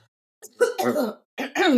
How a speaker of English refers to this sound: I'm gonna cough.